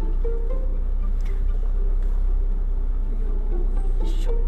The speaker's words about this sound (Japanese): どうやって出るのかな今ビジターセンターというところからねあの車を出そうとしているところです